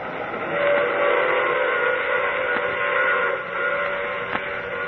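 A sustained train whistle blows steadily over the rumble of a moving train as it departs, loud, with a couple of brief clanks cutting through near the end.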